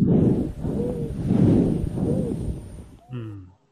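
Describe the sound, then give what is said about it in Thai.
Wheezing breathing heard through a stethoscope, with three cycles of broad rushing airflow and a thin high whistle riding on each breath. The wheeze stays steady, then a short tonal click ends it. “ก็คือเสียงวีดเนาะได้ยินเนาะโอเคได้ยินได้ยิน เออเมื่อกี้ตอนเสียงหายใจเข้าคือฟืดใหญ่แล้วก็ หายใจออกฟีฟี”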